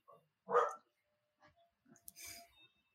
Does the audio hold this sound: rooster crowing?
no